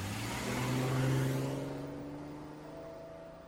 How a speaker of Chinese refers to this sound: 汽车平稳的启动了，转眼消失在马路上。